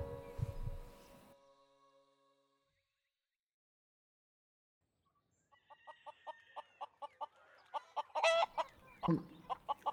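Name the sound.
chicken clucking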